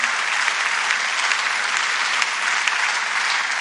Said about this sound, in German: lasst uns ihn mit einem warmen Applaus willkommen heißen.